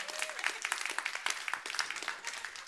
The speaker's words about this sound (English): All right, come on, that's worth an applause for God.